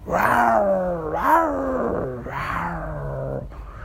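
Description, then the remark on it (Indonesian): A lion caught in a hunter's rope net growls and roars in three long, strained bursts with rising and falling pitch as it thrashes and claws at the net, loud and continuous with no talking. “Sang singa meronta-ronta ya Cakarnya dicakar-cakarkan ke jaringnya itu.”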